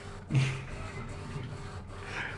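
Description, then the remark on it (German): A coffee machine runs steadily, a continuous mechanical whirring hum with a brief louder surge near the start, heard on its own with no voices. “Ich hab wenigstens nicht über die Kaffeemaschine gemeckert.”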